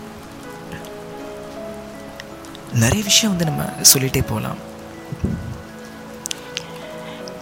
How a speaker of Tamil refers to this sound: நமக்கு அதிகமாக தேவைப்படுற ஒரு விஷயம் தண்ணீர் அந்த தண்ணீர் பஞ்சத்தை போக்குறது இந்த மழை தாங்க